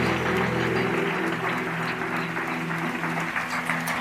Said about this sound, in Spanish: Y sin decir amén, dale un fuerte aplauso al Señor.